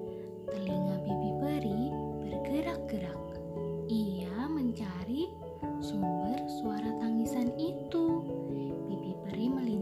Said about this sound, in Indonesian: suara tangisan.